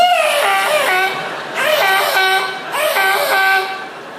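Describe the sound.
Three loud, high-pitched tire squeals in a row, each lasting about a second with a slight dip in pitch, from a car's tires as the driver pulls tight against the concrete curb at a motorway toll booth, with no talking.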